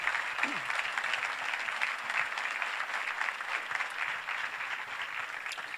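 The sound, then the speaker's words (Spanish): An audience applauds for the Lord in the morning, a dense, continuous wash of many hands clapping at an even level for several seconds, with faint voices mixed underneath. “¿Alguien lo puede creer que le dé un aplauso al Señor en esta mañana?”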